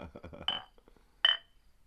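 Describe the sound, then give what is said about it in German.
Two large glasses holding an amber drink with foam on top clink together twice in a toast, two bright ringing taps about a second apart, with a brief murmur of voices just before the first one. “Klingt gar nicht wie Wein Weinanstoß.”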